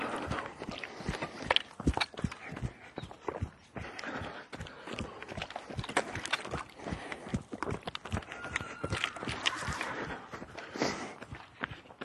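Several horses' hooves clip-clop steadily at a walking pace as the horses are moved to another paddock, many overlapping hoofbeats, with occasional faint murmurs in the background.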